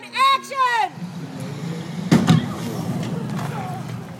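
A car strikes a stunt woman in a car-hit stunt on NCIS Los Angeles: a shrill, wavering screech opens, then an engine rumbles beneath before a sharp, heavy thud lands midway, followed by a fading low hum.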